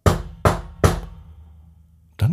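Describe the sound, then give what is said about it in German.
Three loud, evenly spaced knocks on a small wooden door, each ringing out briefly, followed after a pause by the start of a short creak as the door opens. “Torben klopft lauter”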